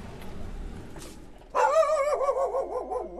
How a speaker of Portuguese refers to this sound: Esse é o latido da Rita, ou Ritinha.